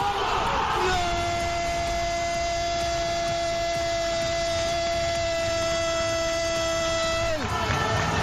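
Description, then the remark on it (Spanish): A stadium crowd in Vallecas roars loudly and continuously at Susaeta's goal for Rayo, making it 3-0 in a promotion celebration, while a single voice holds one long, steady, high shout over it for several seconds, then cuts off as the crowd noise carries on. “Salta toda la gente que no está convocada para celebrar ahora sí la fiesta del ascenso.”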